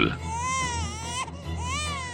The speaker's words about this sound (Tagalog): Natutuwa pang sabi ni … habang karga ang umiiyak ng sanggol.